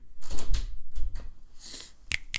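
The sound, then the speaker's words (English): An office door is handled and pushed shut, with a few low thuds and shuffling, then two sharp latch-like clicks at the end. No one speaks. “can you can you shut the door in the office?”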